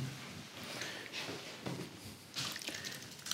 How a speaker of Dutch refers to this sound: Oeps, spetter, spetter.